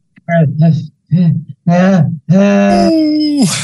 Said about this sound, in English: you hear me screaming as I wake up and just go, ah, where, where are they? Whoa.